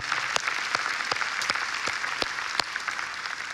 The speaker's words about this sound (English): Come on, let's give Jesus a clap offering of thanksgiving today. Amen.